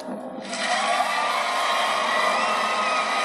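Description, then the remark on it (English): A crowd erupts into loud, sustained cheering and whooping after a brief quieter start, a dense wall of noise that holds steady to the end. “Okay, the crowd likes him.”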